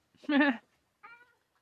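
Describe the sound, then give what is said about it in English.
A cat meows twice: a loud, drawn-out meow, then after a short pause a softer, briefer one. “no, thank you, kitty cat.”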